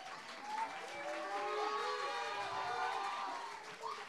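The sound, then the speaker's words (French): A crowd applauds steadily for about four seconds as a performer is introduced for the third battle, a reading of Lettre d'une inconnue by Stefan Zweig; dense clapping mixed with scattered cheers and whoops, fairly loud and sustained before tapering slightly at the end. “Cette fois-ci, ce sera Lettre d'une inconnue de Stéphane Zweig par Louise qu'on peut applaudir.”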